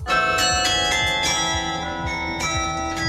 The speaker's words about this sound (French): L'hymne ukrainien a été joué par le carillon de l'hôtel de ville. Les quelques 64 cloches ont résonné en solidarité avec euh, le peuple ukrainien. À partir d'aujourd'hui, l'hymne sera diffusé tous les jours avant la sonnerie habituelle de 13h.